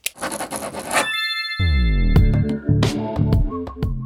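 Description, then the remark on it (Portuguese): A pen scratches quickly across paper for about a second, then a bright ringing chime swells in, followed by a few sharp clicks and clinks. No one speaks. “Pega a caneta.”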